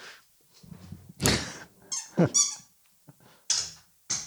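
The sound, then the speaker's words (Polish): A dog in the room lets out a string of short, high-pitched squeaky whines and yelps, fairly loud, in irregular bursts with brief pauses between them. “Przepraszam, bo tu nam pies... Mela! Uspokój się. Nagranie trwa.”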